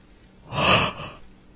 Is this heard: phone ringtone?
no